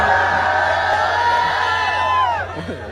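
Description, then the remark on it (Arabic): A loud audience at an event screams and cheers continuously, many high-pitched voices blending into a sustained roar with shrill tones that slide downward and fade slightly at the end. “الجمهور وش وضعكم اللي يصرخون ماني فاهم هي وش قالت ما قالت لكم كبس عشان تصرخون شنو تحسون فيه وانتم تصرخون”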